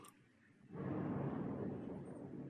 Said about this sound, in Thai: มันคือเสียงฟ้าร้องที่เข้ามาทางโสตประสาทของเรา และเราก็รู้ลมหายใจ เราจะสังเกตว่าเรารู้สึกเหมือนว่า เราได้ยินเสียงฟ้าด้วย และเรารู้ลมหายใจของเราด้วย